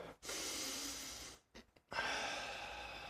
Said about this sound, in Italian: Un'ultima tecnica, qualora avessi bisogno di ridurre lo stress nel brevissimo termine, consiglio grandissimo è non guardarti la tv, non guardare YouTube quando prendi una pausa, invece fai un bel respiro